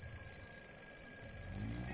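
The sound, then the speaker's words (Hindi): An alarm clock on a table beside a bed rings in the morning in a small ten-by-ten room of a house near a market in Ghaziabad, a continuous high-pitched electronic tone with shrill overtones, sustained without pause at moderate volume, no voices present. “दस बाय दस के कमरे में सुबह हुई बेड पर एक चादर में लिपटा हुआ इंसान खर्राटे मार रहा था और पास रखे टेबल पर अलार्म क्लॉक बजने लगा”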